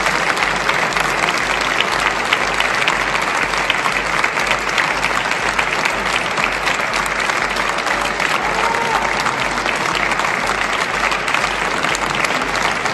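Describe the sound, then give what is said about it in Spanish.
An audience applauds in the Palacio de Bellas Artes in tribute to the late actor Ignacio López Tarso. The applause is a thick, steady roar of many hands clapping that stays loud and even for the whole stretch, with no voices heard. “Los aplausos son en el Palacio de Bellas Artes.”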